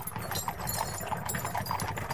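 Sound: horse-drawn carriage hooves clip-clopping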